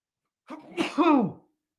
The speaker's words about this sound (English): oh, there's a sneeze coming.